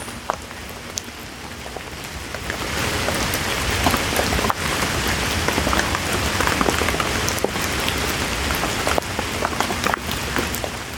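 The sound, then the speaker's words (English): Steady rain patters on a hard surface, a dense continuous hiss of drops with occasional sharper individual taps, building slightly after the first couple of seconds and staying even. “Hello and welcome to this guided sleep talk down meditation with rain sounds.”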